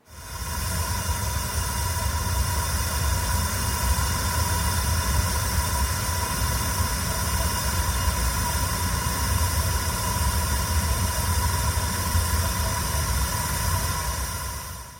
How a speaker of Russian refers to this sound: Вот в этой замечательной библиотеке, которую разослали по школам, а, звук, который, наверное, так просто не покажешь. Файл называется «Газ шумит». Давайте послушаем.